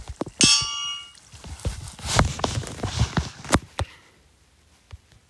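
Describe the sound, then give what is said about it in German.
A loud, ringing metallic clang of a hammer hitting an anvil opens, its bright tone lingering briefly, followed by a run of irregular clanks and clattering knocks that fade to quiet. “Jetzt wird Amboss. Amboss. Bumm.”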